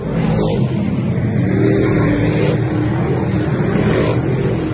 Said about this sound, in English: And my four year old and I made a special adventure. We got out on the road and went to Accord Speedway, which sounds like this.